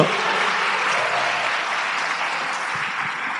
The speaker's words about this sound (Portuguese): Ah, quem vai dar uma salva de palmas nesse instante, porque eu quero. Eu quero experimentar disto.